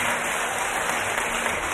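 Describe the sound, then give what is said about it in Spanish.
A steady, dense wash of crowd applause, many hands clapping at once with no distinct individual claps, sustained at an even loudness throughout. “Mira cómo aplauden, mira.”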